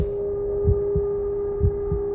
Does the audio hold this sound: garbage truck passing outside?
no